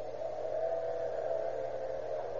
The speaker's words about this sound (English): in a small office located in the Sun Mercantile Company at 616 South 7th Avenue, two men converse in low tones, listen to the high whine of an electric drill.